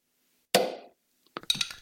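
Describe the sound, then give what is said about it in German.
A beer bottle cap is pried off with a Werra bottle opener: a sharp metallic pop that rings briefly, followed by a quick cluster of small clinks and rattles. Fairly loud, with no voices. “Richtig, ich habe mein Bier gerade mit dem Werra Bieröffner äh, aufgemacht.”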